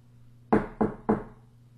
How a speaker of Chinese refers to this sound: 是谁呀？是谁在敲我的门？